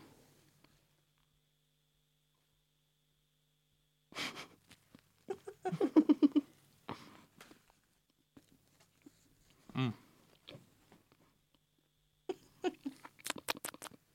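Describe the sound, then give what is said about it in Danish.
Someone bites into a crisp, somewhat Christmassy cinnamon pastry that tasted dry: sharp, dry crackles in short bursts, followed by a few scattered chews and crunches, with quiet pauses between and no talking. “Nu tager vi en bid.”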